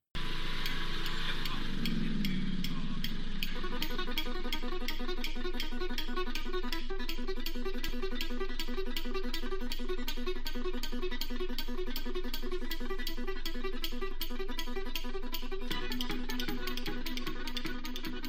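A bluegrass cover of a rock song, played at a brisk, driving tempo with rapid, steady picked notes and sustained harmonies, loud and continuous throughout with no voices.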